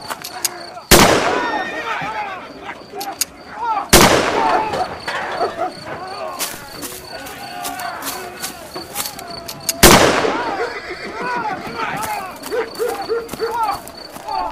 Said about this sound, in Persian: یکی از این چهار گلوله به پای شیخ فضل الله خورد و بقیه هم سهم اون بیچاره هایی شد که به استقبال اومده بودن صدای تیراندازی همسایه ها رو از خونه ها بیرون ریخت